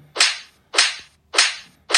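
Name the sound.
slap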